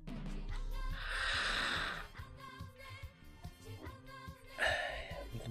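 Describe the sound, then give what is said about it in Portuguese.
Two gurgling, airy slurps of the last mate tea being drawn through the straw of a gourd (cuia), one long and one shorter, with soft music playing underneath. “Deixa eu fazer a, a cuia roncar para vocês ouvirem melhor.”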